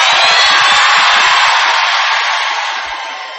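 A large audience shouts "amen" back to a preacher loudly and all at once, a dense, sustained roar of many voices that holds strong for a few seconds before slowly fading.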